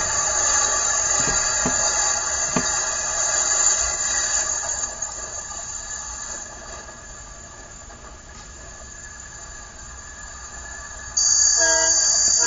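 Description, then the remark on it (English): A train rumbles past while its horn blows in a long, steady blast, fading slightly midway before swelling loud again near the end. No one speaks. “All aboard, all aboard, get aboard this train and ride.”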